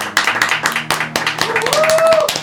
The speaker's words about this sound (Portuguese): salva de palmas para ele, é isso aí, pessoal.